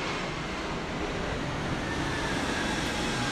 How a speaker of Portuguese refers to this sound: Avião é foda, mano. É, avião é foda. Não, mas. É, é, é barulho é, também.